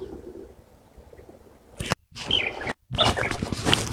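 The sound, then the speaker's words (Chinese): Light-vented bulbul calls: after a quiet, hissy opening, a loud burst of bright, chattering chirps and whistled notes breaks in, interrupted by two brief silent gaps, with no one talking. “这都是白头杯的叫声。”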